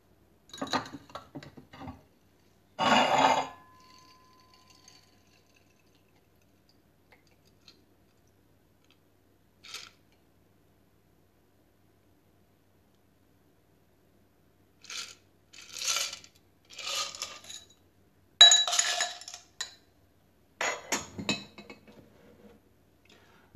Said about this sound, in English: After all these ingredients are in the mixing glass with ice, I'll stir until well chilled. Then I'll strain the cocktail into a chilled coupe glass.